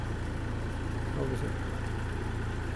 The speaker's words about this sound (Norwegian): Det er vel noen biler, vet ikke. Ja, må bare... Vi rekker å slippe de forbi.